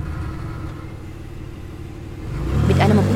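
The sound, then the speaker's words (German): A car engine rumbles low and steady, then swells louder as the vehicle accelerates and pulls away, its revving rising in pitch near the end. “fuhr der Wagen wieder los und ihm folgten unzählige.”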